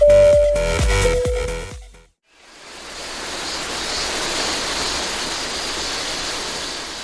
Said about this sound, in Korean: 매미 소리와 시원한 계곡의 물소리가 어우러진 이곳은 지리산의 아주 깊은 계곡입니다.